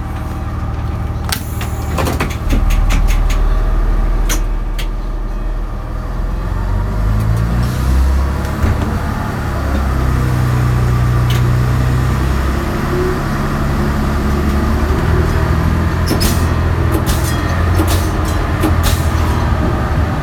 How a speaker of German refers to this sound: Bevor wir uns fragen, wie lange der VT2E noch im Einsatz sein wird, fahren wir noch ein Stück mit. Wir sind auf der Frankfurt-Königsteiner Eisenbahn, steigen in Schneitheim ein und fahren Richtung Frankfurt-Höchst